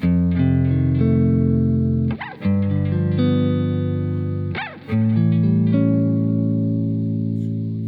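A heavily distorted electric guitar plays sustained, thick chords with a saturated, buzzing tone, changing chords twice with brief pick attacks, loud and continuous with no voices.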